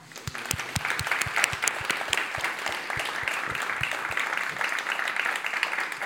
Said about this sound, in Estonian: nüüd on hea hetk teha Gustavile suur aplaus